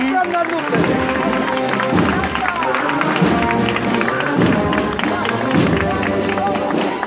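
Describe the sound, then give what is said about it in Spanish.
A crowd applauds steadily for several seconds as a religious procession with the Virgen de la Concepción del Silencio passes, the clapping blending with a dense wash of voices and tonal sound, loud throughout without pause. “Con aplausos es recibida ya por donde va.”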